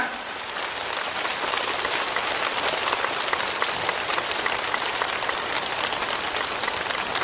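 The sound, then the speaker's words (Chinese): Loud, sustained applause from a large crowd at a Buddhist gathering, a dense, steady wash of many hands clapping that holds at an even level for about seven seconds without any voices. “最后，我们为强烈的掌声，为我们的阵法期待。”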